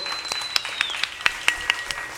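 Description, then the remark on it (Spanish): Audience applause for the staff of Sonidos Independientes, sparse and uneven, with sharp individual claps standing out over a soft wash of clapping, while a thin, high whistle glides slowly downward in pitch. “Por favor, les pido a todos un fuerte aplauso para el staff de Sonidos Independientes que hacen esto posible.”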